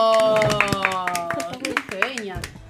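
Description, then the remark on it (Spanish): Scattered, irregular hand claps from an audience break out over people's voices, sharp slaps rising above steady, harmonic-rich talking or singing for a few seconds. “Pero un aplauso, por favor.”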